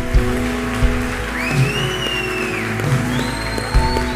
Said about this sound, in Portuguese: Eu acho que se vocês fossem mais intensos, mais altas suas palmas, ia vir mais gente aqui na frente.